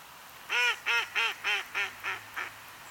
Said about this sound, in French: Le canard colvert fait partie de la cinquantaine d'espèces de canards de surface.